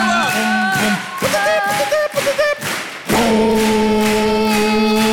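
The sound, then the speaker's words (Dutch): An audience stamps its feet on cue, producing repeated heavy thuds in an uneven rhythm, loud, under sustained musical tones and a general crowd din. “We met de voeten stampen.”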